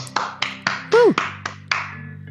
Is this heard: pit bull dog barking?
no